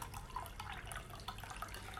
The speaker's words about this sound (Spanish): Es una cascada. Es una cascada. No sé si se escuchará, si. Sí, se escucha.